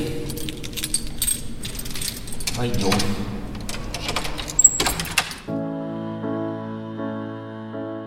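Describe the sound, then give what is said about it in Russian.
Keys jangle and metal clunks rattle as doors in a church dedicated to Saint Vladimir are unlocked and pulled open, with a brief voice; then the clatter stops and steady, sustained harmonic tones take over. “Мы сейчас откроем эти двери.”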